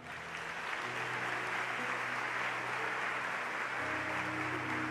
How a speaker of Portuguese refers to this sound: Dê um aplauso ao Senhor.